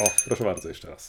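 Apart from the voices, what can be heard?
small hand bell ringing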